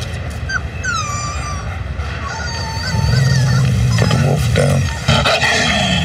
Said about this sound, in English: Oh, it's a puppy. Not a puppy, a wolf. What now? He's a wolf. And that is its incredibly protective mother.